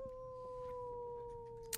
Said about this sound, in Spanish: Por ahí dicen que son tiernos, energéticos y, también hay que decir bastante escandalosos. Em, hay, hay, varios. Son chiquitos. Em, pueden reconocer qué tipo de perros son. Al ratito les voy, les voy contando.